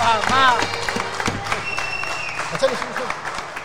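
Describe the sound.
Audience applause fills the whole stretch as a steady, dense wash of clapping, with voices shouting and calling out over it.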